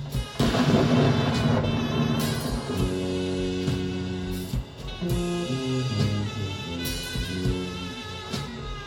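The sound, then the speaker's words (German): Loud booming cannon shots, signalled by a red-and-white flag from a conductor atop a tower, ring out at intervals, a dense rumbling burst at the start and later single blasts, over sustained low droning tones like horns or sirens. “Die rot-weiße Flagge wird für die Kanonen benutzt.”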